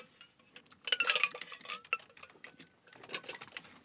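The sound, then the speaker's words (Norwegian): A drink is poured from a mixing glass with ice cubes through a metal strainer into a glass, with a light trickling patter and a few bright clinks of metal against glass, in two short bursts. “Så heller jeg oppi glasset gjennom en sil.”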